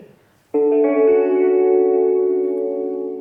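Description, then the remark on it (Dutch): After a brief quiet moment, a radio mounted on a bicycle's handlebars is switched on, abruptly playing loud, sustained music: a rich, reverberant held chord that rings steadily to the end. “Dat is een radio. Ik heb die op het stuur van mijn fiets gemonteerd.”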